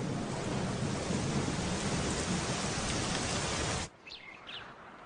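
A heavy thunderstorm downpour in the rainy season at a park roars as a steady, dense hiss for about four seconds, then cuts off abruptly, leaving a quiet stretch with a few faint bird chirps.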